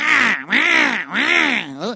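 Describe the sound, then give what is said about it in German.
A human voice imitates a crow cawing: three loud, drawn-out, nasal caws with an arching pitch, followed by a shorter fourth, with no other talk. “Oder es gibt komische Vögel, die sind wie Krähen. Oder immer negativ, immer am Krähen.”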